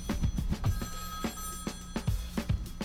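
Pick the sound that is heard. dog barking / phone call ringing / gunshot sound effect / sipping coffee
phone call ringing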